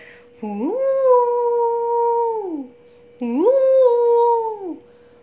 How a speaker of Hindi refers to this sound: उसने कहा अरे ये तो सियार लग रहा है ये सियार की आवाज़ में क्यों चिल्ला रहा है